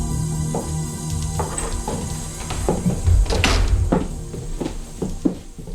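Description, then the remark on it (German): The door of the star De La Rourke's house is pushed open with a creak and bump after no one answered the doorbell, followed by scattered footsteps and clattering knocks as three people come inside, moderately loud. “Sie klingelten an der Tür. Doch niemand öffnete. Deshalb traten die drei kurzerhand ein.”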